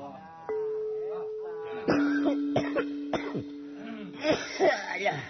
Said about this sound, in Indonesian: lain dek lain sepuh dewek nu batuk mah ampun